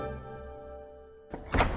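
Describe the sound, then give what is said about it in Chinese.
A low, steady hum gives way to a sudden wooden thunk and clatter as a closet door bangs open, as two teachers let two children out, followed by a brief burst of rattling and rustling. “壁橱门砰的一声打开了，水野老师和木村老师把两个人放了出来。”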